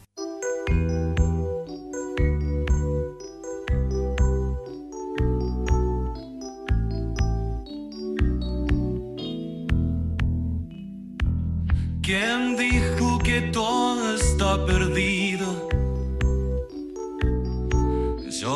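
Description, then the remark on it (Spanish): An AI-generated cover song plays loudly and steadily, with a pulsing rhythmic accompaniment and a sung vocal line; midway the sound grows brighter and fuller, with shimmering high textures joining in. “Inteligencia Artificial - Covers AI”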